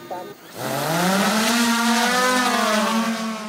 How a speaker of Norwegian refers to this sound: Like før jul summet en liten drone over tretoppen og fjellene i stillehavsstaten Vanuatu. Med seg på den 40 km lange turen til en avsidesliggende landsby hadde den en dyrebar last. En kjølebag med vaksiner mot hepatitt og tuberkulose.